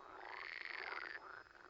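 A frog croaks in a continuous, warbling call that rises and falls, steady, with no one talking over it.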